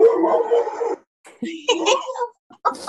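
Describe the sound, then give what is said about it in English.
An office dog lets out a drawn-out whining bark, then a few shorter yelps and whimpers follow after a brief pause, fairly loud. “Office dogs, I tell you, they feel so overlooked.”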